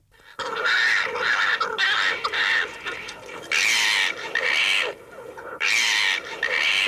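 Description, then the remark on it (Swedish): A fox gives a run of loud, harsh, raspy calls, a chain of rough screeching bursts with short breaks between them and no voices present. “de kan faktiskt också låta så här.”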